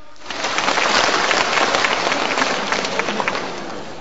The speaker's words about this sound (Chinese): 下面有请越剧王子赵志刚，他将给大家带来《沙漠王子》选段《算命》，让我们掌声有请赵志刚。